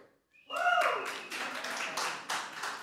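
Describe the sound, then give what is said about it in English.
A crowd breaks into steady applause for the film It's a Wonderful Life, many hands clapping in a dense, continuous patter that stays fairly loud, with a brief whoop or cheer near the start. “You can clap for more than one, by the way.”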